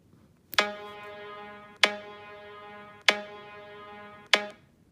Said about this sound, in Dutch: Hij geeft inmiddels een wat rustiger auditief signaal aan, hè, weer vergelijkbaar met een rateltikker, eh, dat die op rood staat en eh, je voelt trilling in de telefoon op een rustige manier.